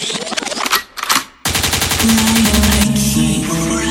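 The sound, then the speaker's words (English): A rapid burst of loud gunshot sound effects, used as a DJ cue meaning forward, crackles for over a second, then cuts sharply into a thumping music track with a bass line. “Liquid means rewind, a gunshot means forward.”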